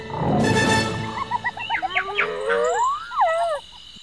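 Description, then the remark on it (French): A deep, rumbling roar of lions in the distance opens, then gives way to a series of rapid, high-pitched cackling calls and a rising whoop of hyenas squabbling over their prey, outdoors at night. “Jane entend les lions rugir au loin et les hyènes qui ricanent en se disputant leur proie”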